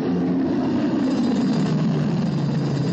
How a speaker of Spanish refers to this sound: Un jeep se acerca a los edificios de la base.